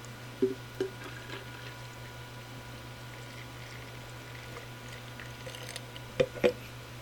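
An additional 12 ounces of water is poured and stirred into a thick, lemon-and-lime flavored slurry, a faint, steady wash of liquid under a low electrical hum, with a few soft clinks near the start and end. No one speaks.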